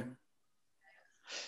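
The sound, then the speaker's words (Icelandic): A phone connection breaking up: a clipped fragment of voice cuts out to near silence, then garbled, warbling bits return before ending in a harsh burst of hiss. “það er eitthvað að rofna sambandi við hans”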